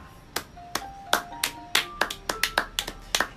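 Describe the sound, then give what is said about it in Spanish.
Sharp, loud hand claps, about a dozen in an uneven rhythm over a few seconds, with faint ringing tones sustaining between them. No one speaks. “Y disculpen si los aplausos sonaron bien fuertes en el, episodio, pero nada, vamos a moderar con eso, de acuerdo a cómo se escuche”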